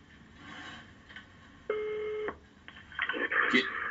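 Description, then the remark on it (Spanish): A telephone is dialed by presenters placing another call: one sustained keypad tone, then a quick, busier flurry of beeping tones, clear over a low background hiss. “Al escuchar el gruñido de la entidad, los presentadores no cejaron en su esfuerzo de establecer contacto con él y realizaron más llamadas.”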